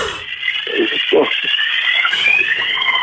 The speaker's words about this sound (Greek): δώσ' μου λίγα δευτερόλεπτα μέχρι να φύγει αυτή η Σιρήνα.